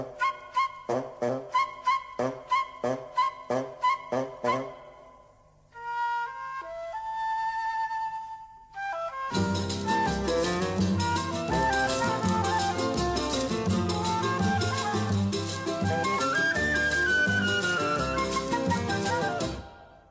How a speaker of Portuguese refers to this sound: É, podemos ouvir, por exemplo, uma polca da Chiquinha Gonzaga chamada Atraente.